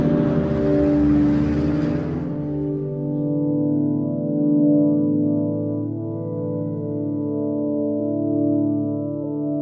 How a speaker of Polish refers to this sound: Podjeżdża autobus. Wsiadam.